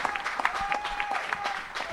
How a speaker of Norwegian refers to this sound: Ja, applaus nå, så vi hører her. Ja. Nett som på Brann stadion!